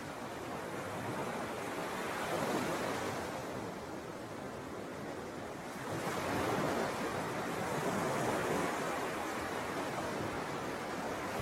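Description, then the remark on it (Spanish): Ocean waves break on a shore in a steady wash of surf, swelling louder twice as successive waves roll in and recede, with no voices present. “Escuchas el oleaje.”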